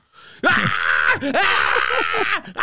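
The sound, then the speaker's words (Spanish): A man's voice imitates loud, raw screaming: two long, strained yells with a short break between them, harsh, with no other speech. “cuando yo me quedo en el carro solo, I start screaming como un loco. Empecé a gritar.”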